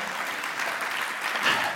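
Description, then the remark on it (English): A church audience claps together for its members' community service work, a dense, steady patter of applause that holds at an even level for a couple of seconds, with no one speaking over it. “Now's when we give the round of applause for that, right?”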